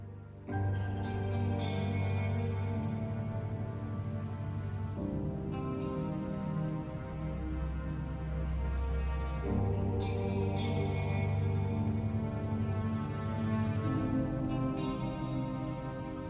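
A German rap track intro plays loudly and steadily: layered, sustained synth and bass chords shifting every few seconds, drenched in echo and reverb, with no voices.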